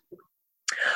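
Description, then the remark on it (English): A single sneeze, fairly loud: a faint breathy intake, a brief pause, then a sharp explosive burst that trails off in a rough, breathy hiss. “Oh, bless you.”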